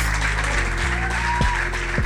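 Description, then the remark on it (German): A large crowd at an evening event in Frankfurt am Main applauds loudly and steadily, a dense wash of clapping filling the whole stretch, with faint musical tones running underneath and no one speaking. “Dankeschön für den tobenden Applaus auf jeden Fall.”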